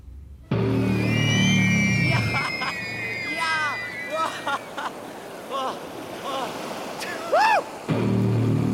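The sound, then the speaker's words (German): Small waves wash onto a beach in a steady, rushing hiss, while the high-pitched voices of children shriek and call as they run into the water, and a low hum sits underneath at the start and end. “… stürzt sich, ohne zu zögern, in die kleinen tänzelnden Wellen.”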